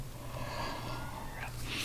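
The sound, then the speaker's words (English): A long, drawn-out breathy yawn, stretching for about two seconds and ending with a brief airy rise. No one speaks over it. “Now I'm starting to yawn, so.”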